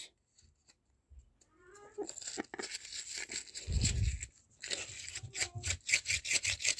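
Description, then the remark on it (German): A few small handmade paper slips rustle and crinkle as they are shuffled for a random draw, starting softly and growing into a busy run of dry, crackling shuffles with a soft thump partway through. No one speaks. “Ich habe das einfach auf ein paar kleinen Papieren gemacht.”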